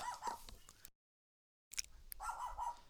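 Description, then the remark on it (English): A dog yips and whimpers in two short bursts separated by a brief silence, its high whining cries clear, with no one talking. “Are we gonna take a quick commercial break as the mascot starts barking at the uh, the goat?”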